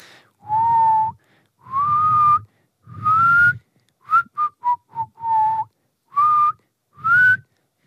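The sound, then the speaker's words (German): Someone whistles with their lips in a clear melody: several long sustained notes, then a quick run of short chirpy ones, then more held tones, with breathy pauses between. “… kann doch pfeifen.”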